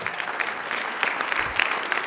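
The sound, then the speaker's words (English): An audience claps steadily for God, many hands producing a dense, continuous patter of bright, crisp slaps with small surges in intensity, with no voices heard. “Now, now again, we all, we all know who we're clapping for here because this is a God thing, right?”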